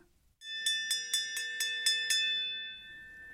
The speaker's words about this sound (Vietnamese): Tiếng chuông báo của tổ giáo viên buổi sáng vang lên, mọi người đều ngồi ngay ngắn vào chỗ.